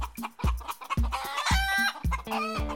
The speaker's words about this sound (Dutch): We zenden vandaag uit vanuit een tuinhuisje waar ook wat kippen rondlopen. U hoort ze misschien af en toe een beetje scharrelen.